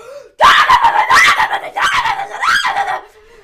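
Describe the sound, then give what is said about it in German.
A voice loudly imitates the roar of a monster truck engine suddenly starting in a large hall at the Mercedes-Benz Arena, a harsh, strained vocal blast lasting about three seconds with a few surging pulses. “plötzlich ging dieser Motor an in diese große Halle”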